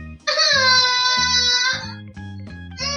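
A child cries out in one long, loud, wavering wail lasting over a second, followed by a few shorter, fainter sobs, all over a steady low musical backing.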